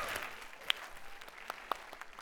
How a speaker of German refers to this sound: Ja, ein kleiner Applaus.